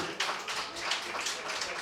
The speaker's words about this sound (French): s'il vous plaît, on peut l'applaudir.